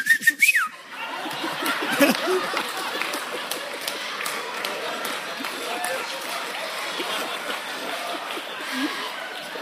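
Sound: whistled bird call imitation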